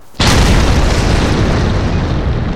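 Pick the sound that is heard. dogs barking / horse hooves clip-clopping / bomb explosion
bomb explosion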